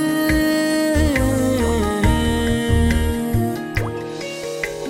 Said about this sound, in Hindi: ओ ये बारिश